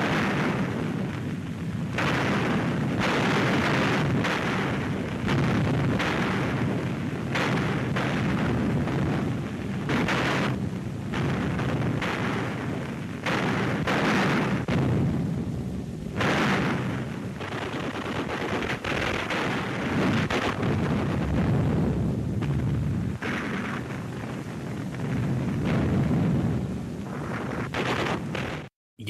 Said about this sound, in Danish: Vi hører krigslarm fra kampene i Berlin øh, i, i april 1945.